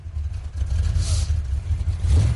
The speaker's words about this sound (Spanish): Un coche negro llega.